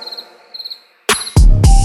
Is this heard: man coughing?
no